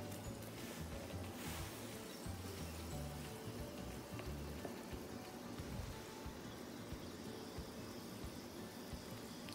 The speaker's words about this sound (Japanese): 川から空気が抜けて泡立っているのが分かりますよね音まで聞こえるでしょうかねこんな感じで少し何分か置いておくとある程度入りますので